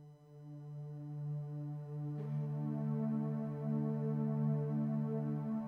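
An instrumental opening of a Danish song: steady, droning tones with a rich, buzzy harmonic quality, holding evenly at moderate loudness, with one sharp attack partway through before the drone continues. No voices.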